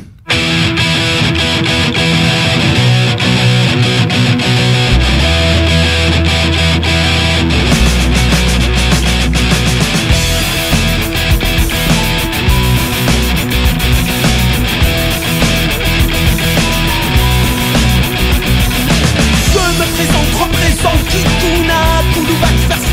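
A loud, distorted rock song with French lyrics plays continuously at full volume on the radio show Les Technopreneurs, with heavy bass and drums kicking in after the first few seconds and driving on steadily to the end.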